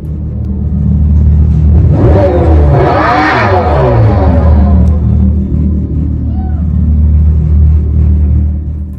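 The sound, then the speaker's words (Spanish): A Dodge Charger Daytona SRT Concept revs: a loud, deep rumble swells into a rising, wavering whine that peaks and falls away, then settles back into a steady low drone. “El Charger Daytona SRT Concept suena de esta forma.”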